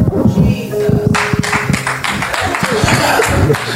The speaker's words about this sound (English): well, we down to two clap, boy.